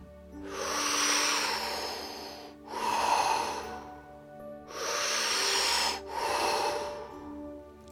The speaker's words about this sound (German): Vielleicht bist du ja ein wenig neugierig, was passieren mag, wenn du tiefer atmen würdest.